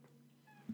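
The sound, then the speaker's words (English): A single short, faint cat meow with a brief tonal rise over a low steady hum and no talking. “oh is that the cat that that would be the cat that's the cat meowing”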